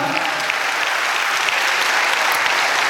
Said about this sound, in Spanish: Aleluya, dale un aplauso al Señor hermano.